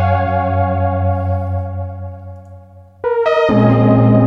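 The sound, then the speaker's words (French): A thick, buzzy synthesizer patch using analog emulation drones steadily, then shifts abruptly to a brighter, louder chord with a short pitch change, all heard alone with a rich, slightly distorted, effected tone. “En fait, le truc, c'est qu'il y a aussi, euh, il y a aussi une émulation analo à l'intérieur qui est mortel de chez mortel.”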